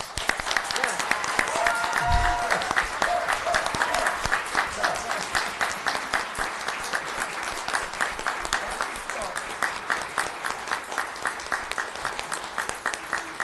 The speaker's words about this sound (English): All right, give ourselves a round of applause.